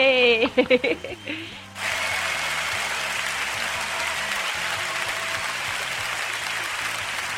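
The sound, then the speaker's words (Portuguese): A short burst of voice gives way to sustained, dense clapping that holds steady at moderate loudness to the end, with a low repeating bass-like tone running underneath. “Eu até bater palmas pra ele.”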